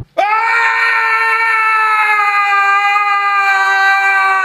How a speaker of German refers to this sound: Ich schneide den mal rein. Mit diesem Schrei.